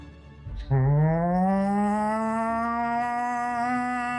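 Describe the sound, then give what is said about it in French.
An alarm siren in a port, set off by an attack on the port, starts up abruptly, its loud, buzzing tone sliding upward in pitch before holding steady at a sustained wail. No one speaks. “une sirène qui se déclenche parce qu'une attaque qui a été faite sur le port d'un bateau volant qui est déjà en train de s'en aller puis de prendre la vitesse pour quitter le port.”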